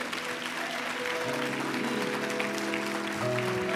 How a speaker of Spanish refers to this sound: Ponte en pie, mi amado, y rindámosle un aplauso fuerte al Señor con todo tu ser. Vamos, un aplauso que celebre la justicia de Dios. Un aplauso que celebre la palabra de Dios en esta noche.